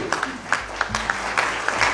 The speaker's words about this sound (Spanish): Y amén. un aplauso, Señor, hermano, Aleluya.